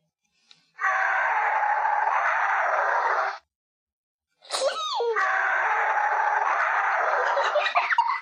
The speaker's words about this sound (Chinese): 它的脚上长着。十五厘米的的大弯爪，像镰刀一样锋利。这可是它捕猎的特殊武器。我们来听一下恐爪龙的声音。